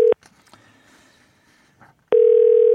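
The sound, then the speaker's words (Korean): A phone line connecting as a radio show calls a listener for an on-air quiz: a short electronic tone, a stretch of faint hiss and clicks, then a loud steady ringback tone that holds to the end. No one speaks. “자 오늘 과연 동네 스타가 탄생할지 아니면 대망신으로 마무리가 될지 연결해 봅니다.”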